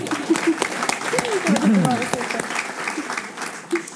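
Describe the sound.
A crowd breaks into steady applause for a man's wife, dense clapping sustained for a few seconds, with voices murmuring and calling out underneath.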